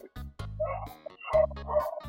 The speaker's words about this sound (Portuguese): Nossa, agora meu cachorro, puta que pariu mata a avó, mata o cachorro.